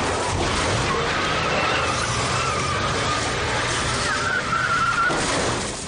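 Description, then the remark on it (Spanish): A car engine roars loudly as the car reverses and rams another car again, pushing it toward the sea, with tires skidding and scraping on the road, a rising squeal near the end amid a dense, continuous rumble of motion. “da marcha atrás y vuelve a embestir el vehículo de Sonier, empujándolo para arrojarlo al mar”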